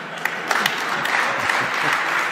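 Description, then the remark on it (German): A live audience applauds steadily, a dense wash of many hands clapping at once with a few sharper claps popping out, sustained at an even, fairly loud level throughout. “Hm, ja, gibt's auch einen Applaus für.”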